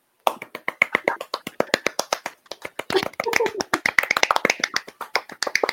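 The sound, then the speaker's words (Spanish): Fairly loud applause from a small group: quick, irregular hand claps continuing for several seconds, with a few voices briefly audible underneath partway through; the applause is for a writer. “Un aplauso, por favor.”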